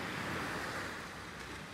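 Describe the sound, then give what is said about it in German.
A soft, steady wash of water noise, small waves lapping gently at the shore of a bay lined with hotels and high-rises, in the morning with a light breeze, continuous with no distinct breaks or voices. “Und selbst die Wellen schlagen heute Morgen ganz sanft ans Ufer.”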